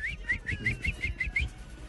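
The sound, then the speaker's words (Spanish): Someone whistles like a small bird: a quick, steady run of about eight bright chirping notes, each with a short upward flick, over a low rumbling background. “¿Cómo le va? pajarito.”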